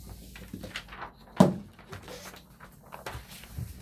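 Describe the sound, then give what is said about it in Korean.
Handling noises as a messed-up sheet of paper is swapped out for a new one: soft rustles and shuffles of paper, with one sharper knock or slap partway through. No voices. “종이가 엉망이 됐으므 잠시만 체인지 하겠습니다.”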